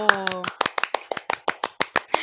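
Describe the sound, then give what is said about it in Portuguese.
A steady run of about a dozen sharp hand claps, fairly loud, in a quick even rhythm, with a brief tonal sound at the very start. “Palmas para este momento.”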